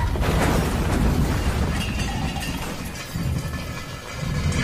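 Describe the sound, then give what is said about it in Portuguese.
A loud car crash as the driver tries to brake and the ground opens during an earthquake: a heavy impact bursts into shattering glass, followed by sustained crunching and rumbling debris for several seconds, with no voices. “O motorista até tenta frear, mas o chão se abre e o carro acaba batendo.”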